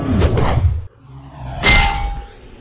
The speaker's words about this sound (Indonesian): Nabrak sesuatu, peluru itu terpelanting jatuh.